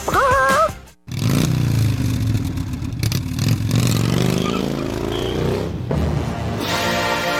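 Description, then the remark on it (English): A loud Harley-Davidson motorcycle engine revs, its deep throaty rumble climbing and surging for several seconds after a brief pause, with no voices over it. “Hey, Clemson fans, now is the time to feel the open road on a motorcycle from Harley Davidson of Greenville.”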